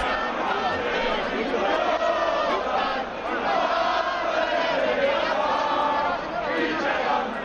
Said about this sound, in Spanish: Grupos ultras cantando El cara al sol.